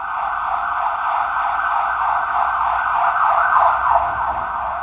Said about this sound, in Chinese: 他声音都盖过我们，因为赖主席的那个诊所啊，他的诊所就是在 澄清医院这边， 在澄清医院附近，所以时 天 不时 天都救护车 时，不时就会有救护车的声音经过。